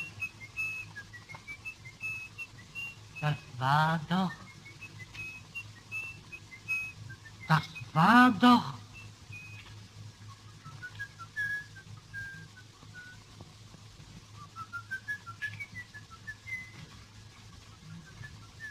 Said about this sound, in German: Na hör doch mal, da pfeift doch einer. Da hilfst du denn nicht? Da! Jetzt ist er still. Hast du den Mann gesehen, der hier pfiffen hat?